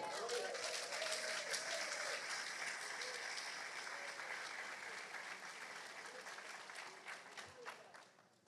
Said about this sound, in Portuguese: Aplauda o Senhor.